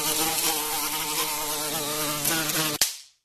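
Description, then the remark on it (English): A loud fly buzzes continuously for about three seconds, its droning pitch wavering slightly, then cuts off abruptly with a sharp snap and a brief fading tail. “We're doing the fly in the wall.”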